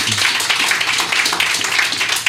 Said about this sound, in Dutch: Dus dat, daar wil ik een applaus voor.